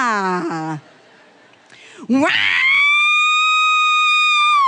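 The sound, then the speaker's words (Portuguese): A voice mimics the siren of a fire brigade truck arriving on a street in a Brazilian town of 20,000 people, sweeping upward from a low pitch into a loud, high, sustained wail that holds steady for a couple of seconds, after a brief spoken sound. “E aí vem o corpo de bombeiro com a sirene ligada.”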